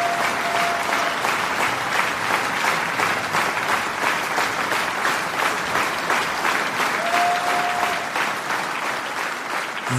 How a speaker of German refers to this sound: liebe Hörerinnen, liebe Hörer, der Applaus war für euch.